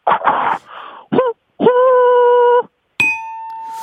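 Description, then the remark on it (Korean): A person vocally imitates a steam locomotive with a few quick, breathy chuffs, then a loud, steady whistle-like hoot held for about a second, and a final bright ringing tone, alone. “증기기관차 한번 오랜만에 들어볼게요.”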